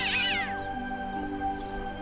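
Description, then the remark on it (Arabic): A black cat lets out a single odd, strained meow as it pounces on an old man and tries to grab his foot, bright and wavering at the start, then fading into a quiet, steady hum for the rest of the moment. “ولكن القطه انقضت عليه وحاولت الامساك بقدمه مصدره مواء غريب”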